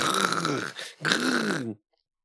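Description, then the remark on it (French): A voice imitates a bear's growl in two loud, rough bursts separated by a short pause, then falls silent. “Mais si vous croisez un canard de 3 mètres, debout sur ses pattes arrière, et qui vous regarde comme s'il allait vous becter tout cru en disant”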